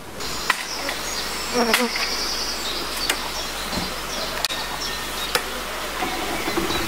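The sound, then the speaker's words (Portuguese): A steady, dense buzzing of many honeybees swarming around an apiary of more than 50 hive boxes while the owners puff smoke, constant, with a few sharp clicks and a brief bird chirp cutting through. “É o seguinte, cara, eu tô vendo aqui é um apiário com mais de 50 caixas de abelha.”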